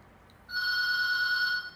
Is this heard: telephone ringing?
yes